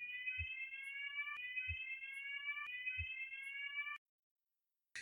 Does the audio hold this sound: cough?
no